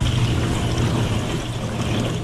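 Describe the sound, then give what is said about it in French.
Running water from washing dishes pours in a steady, unbroken rush, a full hiss with a low rumbling undertone that holds level for about two seconds, with no voices. “La vaisselle, bien, bravo.”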